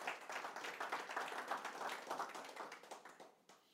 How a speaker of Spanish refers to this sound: Un fuerte aplauso para nuestro Señor y vamos a orar.